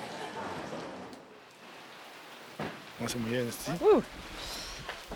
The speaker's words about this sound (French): On est sous la pluie, mais euh, protégé.